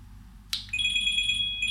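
A phone starts ringing with a sharp electronic tone, a steady high-pitched warble that continues without pause over a low background hum.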